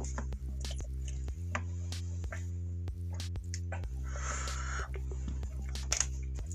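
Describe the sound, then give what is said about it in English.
Quiet sips and swallows of water with small wet clicks and one brief gulping rush midway, all over a steady low electrical hum. “I mean, golly, I'm, I'm taking a drink of my water.”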